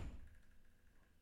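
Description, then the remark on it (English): A single muffled door slam in a house lands at the very start, a deep low thud that quickly fades into quiet room tone with no one speaking. “And if you heard that slam, don't don't be scared.”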